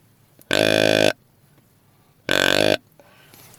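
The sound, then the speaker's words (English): Two loud, deep grunts from a handheld deer grunt call, its button pressed down further to imitate a bigger buck, each about half a second long and separated by a short pause, buzzy with no talking over them. “If I press down further, it's it's a bigger deer.”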